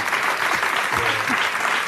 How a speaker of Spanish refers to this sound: Bueno, mira, aprovecha este aplauso para ir a vengarte del gracias,